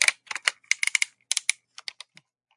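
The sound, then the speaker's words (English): Plastic ratchet joints on the arms and legs of an action figure click sharply, with over a dozen crisp snaps arriving in quick, uneven bursts. No voices are heard. “They have ratchet joints on the arms and legs.”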